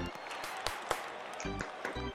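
Continuous hand clapping, a dense patter of claps with a few sharper, louder smacks standing out, and short bursts of voice mixed in toward the end.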